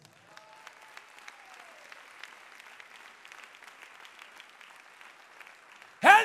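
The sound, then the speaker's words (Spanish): An audience at a Sunday service applauding for the Lord: a steady patter of many hands clapping at a low level for several seconds, then a sudden loud burst of applause at the very end. “Dele un fuerte aplauso Señor.”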